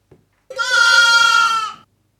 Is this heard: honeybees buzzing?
no